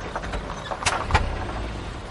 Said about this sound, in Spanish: El coche se para.